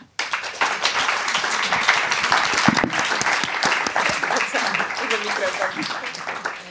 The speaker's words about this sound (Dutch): mag ik een hartelijk applaus voor Emily en eh, Marta.